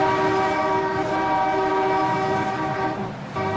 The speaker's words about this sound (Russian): По этому поводу надо посигналить. Давайте три раза, где бы ни находились, прямо сейчас.